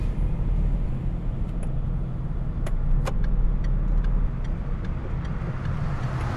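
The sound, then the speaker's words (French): A small red Clio's engine hums in a steady low rumble as it drives, taking the first right up a street in search of a parking space, with a few light clicks and ticks scattered over the droning road noise. “La Clio rouge a pris la première à droite, remontant la rue Sigisbert de jean jusqu'à trouver une place de parking”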